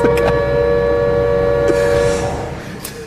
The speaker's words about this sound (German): Deswegen gibt's jetzt den Spoiler-Alarm.